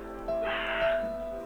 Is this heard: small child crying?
no